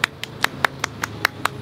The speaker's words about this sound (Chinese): 特别由于因为怕画面无聊，所以我们请了一位非常漂亮的阿姨来跟我们一起进行采访，给大家一起鼓掌欢迎她。